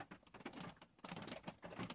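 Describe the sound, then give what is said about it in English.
Dense, steady patter of heavy rain, a continuous hiss of many drops with a brief lull partway through, fairly soft overall and with no voices. “Yeah, the rain's really coming down now.”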